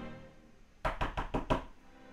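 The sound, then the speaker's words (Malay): A quick run of about five sharp knocks on a hard surface, fairly loud and evenly spaced, imitating someone knocking on a window, with no talking. “saya dengar ada orang ketuk tau uh dia, dia tiga kali lah kat tingkap”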